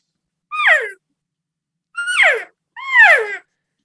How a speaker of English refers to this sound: and you're controlling your tongue pressure and also the pressure with your diaphragm to bring that note down in a nice controlled manner.